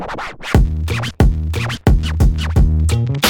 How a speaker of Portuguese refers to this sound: Barulho de chinelo.